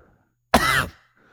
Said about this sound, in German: Wir brauchen, ja. wir brauchen eine Räuspertaste. Oh. Du könntest mal eben die Hand vors Mikro nehmen. Das hätte jetzt auch nicht geholfen.